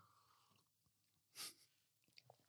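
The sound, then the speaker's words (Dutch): Quiet chewing of Mellowcakes chocolate marshmallow cakes with wine, soft wet mouth sounds and a brief louder breathy burst midway, then a few small clicks and smacks near the end. No one speaks. “Wijn en mellowcakes. Dat is een gouden combinatie.”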